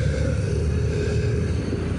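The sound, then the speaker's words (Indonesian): A car's engine rumbles steadily, a low, continuous drone that holds at an even loudness throughout, with no voices. “Oh, mobil.”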